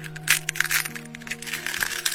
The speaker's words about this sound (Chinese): 蛋壳一个接一个的裂开。小鸭子们伸出头，东张西望。